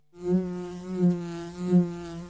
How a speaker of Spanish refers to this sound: No se asuste, que no pica. Es la abeja de Andes origen miel. Muy rica.